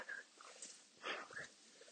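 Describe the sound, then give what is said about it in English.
A dog barks faintly somewhere far off, a single short burst rising briefly above a quiet, hissy outdoor background. “There's a dog there somewhere.”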